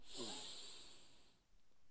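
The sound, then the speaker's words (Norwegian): A deep, airy inhale drawn through the nose during a guided breathing exercise, fairly loud, lasting just over a second before fading into quiet. “Pust godt inn med nesa.”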